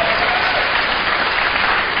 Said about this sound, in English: see they're clapping?